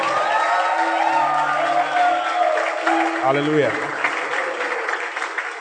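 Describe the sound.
A crowd applauds steadily and loudly while voices whoop and cheer over the clapping, with one voice calling out; the dense applause fades slightly toward the end.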